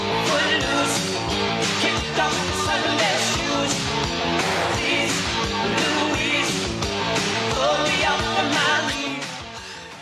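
A pop song plays steadily for the whole stretch, with full instrumentation and a rich layered sound at a fairly loud, even level, tapering slightly at the end. No one talks over it.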